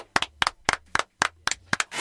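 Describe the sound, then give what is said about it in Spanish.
An applause sound effect made of sharp, crisp claps falling in a steady rhythm, each beat a quick double clap, about eight beats over two seconds with no voices. “Ahí está, me encanta que venga el efecto.”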